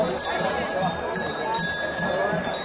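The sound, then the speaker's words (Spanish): Small bells on the headstalls of oxen pulling a moving cart jingle continuously in a bright, steady tinkling as the oxen walk fairly quickly, with a busy murmur of voices and movement underneath throughout. “Y de nuevo, la carreta en marcha, como estás escuchando el sonido de esas campanillas que van en los frontiles de los, de los bueyes.”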